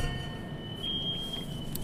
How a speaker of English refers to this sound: That, that alarm got you discombobulated. Well, that too, and I'm trying to uh, make sure that they doing something to, about it, so I don't got to keep dealing with it.